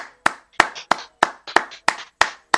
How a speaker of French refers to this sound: en même temps, on l'applaudit pour un truc dont il n'est pas du tout responsable.